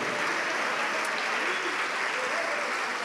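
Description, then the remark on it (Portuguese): Sustained applause from a large church audience giving a big round of applause to God, a steady dense wash of clapping lasting the whole stretch with no pauses and no voices standing out. “Então dá uma grande salva de palmas para este Deus e diga assim: Eu confio.”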